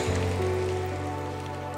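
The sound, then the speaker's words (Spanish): A crowd applauds for the Lord during a religious conference, a dense and steady patter of many hands clapping that keeps an even level throughout, with a low sustained hum underneath and no voices. “Alguien que le brinde un aplauso al Señor.”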